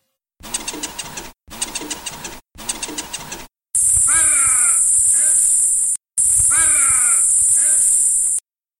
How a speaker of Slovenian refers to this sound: Uh, ja, Lauro je imel prav, ta v, v posnetku sta bila res ptič in človek. In sicer sta ta ptič in človek v zelo posebnem odnosu,